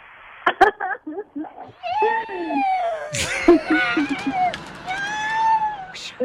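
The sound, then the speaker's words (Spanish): A cat yowls and wails repeatedly from inside a washing machine, with long, wavering cries, some thumping and knocking at the start and midway, and rumbling machine noise underneath. “Porque ahí le va otra vez, le voy a poner la bocina a la lavadora para que escuche el gato.”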